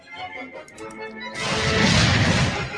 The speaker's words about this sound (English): Full of explosions. Yes. Oh, yes. We love that noise.